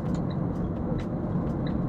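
Steady low rumble of a car driving in the middle of a busy city avenue at about 70 km/h, engine and tire noise filling the background continuously, with faint brief higher squeaks from other traffic.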